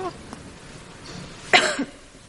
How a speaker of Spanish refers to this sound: la hermana María despierta sobresaltada por los ruidos que hace uno de los bebés